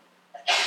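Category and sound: human body sound, sneeze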